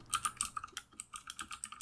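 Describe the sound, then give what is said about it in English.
Rapid, uneven clicking of computer keys, a dense burst of about a dozen keystrokes in under two seconds, sounding hurried and frantic, as someone types a Google search for how long the moon takes to go around the Earth, with no voices. “Somebody is frantically googling. I'm typing it in.”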